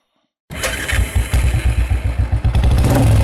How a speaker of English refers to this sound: The engine leapt to life, and Wut Brakes revved it, dropping the transmission into gear and opening the throttle wide. The turbo screamed as it spooled up. He held the engine at 5200 RPM to get the max torque into the gear reduction box.